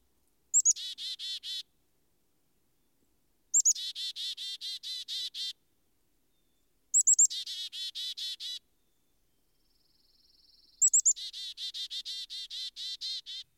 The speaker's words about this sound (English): Indulging in a brief nap on a rug of club moss carelessly draped at the foot of a pine, I woke up to find myself the subject of a discussion of a troop of chickadees.